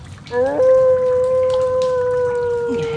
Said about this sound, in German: Das Heulen kam näher. Es klang wie von einem hungrigen Wolf, der auf seinem Beutezug durch die Kanäle streifte.